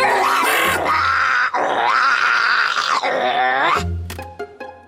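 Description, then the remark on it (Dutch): A voice imitates a watchdog growling in long, rough, throaty bursts, loud and sustained with a brief break, ending in a few short grunts and a sharp click. “Een waakhond moet ook kunnen grommen om indruk te maken.”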